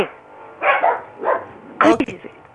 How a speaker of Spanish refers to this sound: que están ladrando.